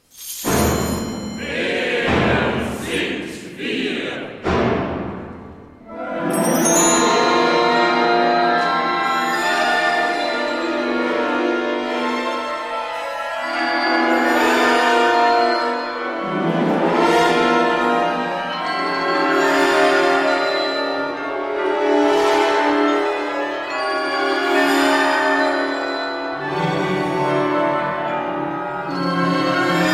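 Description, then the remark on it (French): The opening of Peter Rudveusch's contemporary oratorio Alleluia Oratorium Balbulum, for orchestra and narrator, begins with a few sharp, separated percussive strikes, then swells into a loud, sustained wall of massed voices and instruments holding dense, shifting chords. “venons d'entendre le début d'Alleluia Oratorium Balbulum de Peter Rudveusch, qui va être donné le jeudi 18 janvier dans notre maison de la radio.”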